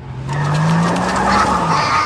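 A school bus's tires screech loudly as it skids to a stop for about two seconds, a harsh, steady squeal over rumbling engine noise, with no voices.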